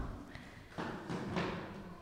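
A few dull thuds and scrapes as a chair is carried over and set down on a hard floor, with a faint murmur in the background.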